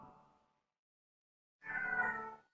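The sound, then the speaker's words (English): A female cat meows twice: a short call fading out at the start, then after a silent pause a louder, drawn-out meow. No one speaks. “Kitty, please stop.”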